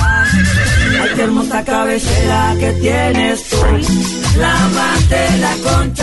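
A horse neighs loudly, a long wavering whinny repeating across several seconds over a steady, pulsing low musical backing, with no talking.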